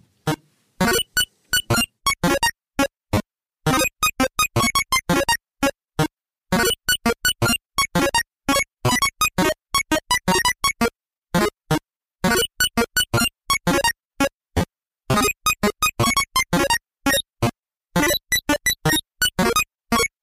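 Chiptune music from a Game Boy, with fast, choppy bursts of buzzy square-wave notes that stop and start in quick, irregular rhythms. The playing is loud and close, with no voices.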